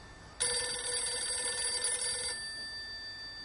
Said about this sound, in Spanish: En flashback, el teléfono suena en el apartamento de Lucas y Amish.